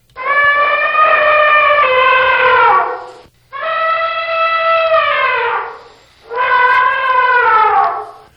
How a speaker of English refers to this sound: and that is the elephant. There are three species of elephants the African bush elephant, the African forest elephant, and the Asian elephant.